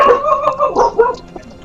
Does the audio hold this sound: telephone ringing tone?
no